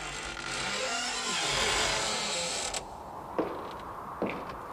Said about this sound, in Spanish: Los pasos y la abrida de puerta. Ah, claro, pero, pero eh, no, esto era un bosque.